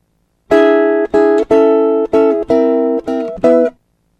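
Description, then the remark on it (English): A guitar strums an E chord barred at the 9th fret with the little finger at the 12th fret, seven times in a steady, slightly uneven rhythm, each bright, ringing strum cut short before the next. Clear, with no voices. “For an E chord, with your little finger at the 12th fret and bar at the 9th fret, it sounds like this.”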